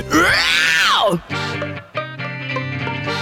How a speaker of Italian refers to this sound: Urla nel microfono.